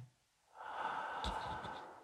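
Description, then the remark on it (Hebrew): A long, steady inhalation taken into the chest only during a breathing exercise, drawn in after a brief quiet moment, a breathy airy rush lasting over a second with a slight catch partway through. “מוציאים אוויר, נשימה שנייה, שאיפה, לוקחים אותה רק לבית חזה.”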